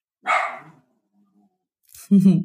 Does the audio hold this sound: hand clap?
no